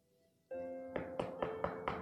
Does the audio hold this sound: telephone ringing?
no